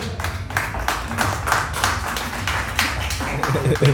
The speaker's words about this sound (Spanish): Gracias por el aplauso, gracias por el aplauso.